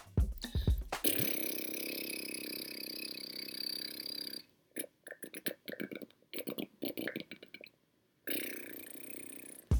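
A voiced lip trill (lip tribbling) done as a vocal exercise to adjust resonance, a buzzy fluttering hum held for a few seconds, then repeated in short choppy bursts before one more sustained trill. Fairly loud, with no talking.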